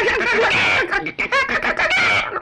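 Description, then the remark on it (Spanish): Hens cackling loudly, their excited, overlapping calls tumbling over one another almost without pause, with only a brief dip partway through. “Mm, las gallinas cacareaban como burlándose de ella.”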